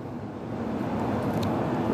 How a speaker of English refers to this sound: and you might be able to hear that plane that's flying over just now.